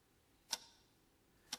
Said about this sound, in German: Das Ticken und das Fortschreiten der Uhr können wir genauso wenig beeinflussen wie aufhalten.